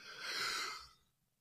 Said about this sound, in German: Gesundheit.